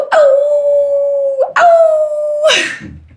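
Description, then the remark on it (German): Someone imitates a wolf howl: two loud, long, steady 'aoo' calls, the second shorter, followed by a brief breathy burst like a laugh. It is a wolf cry a group uses to find each other in a crowd. “weil wenn man so mitten in, irgendwie im Trubel ist und sich nicht findet, dann kann man den Wolfsschrei machen und dann findet man sich wieder.”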